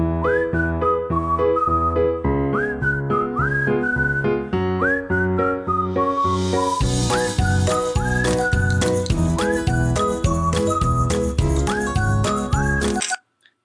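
An upbeat tune led by a bright whistled melody with little upward slides, over steady bouncy accompaniment that fills out about halfway through, loud and close, then cutting off abruptly.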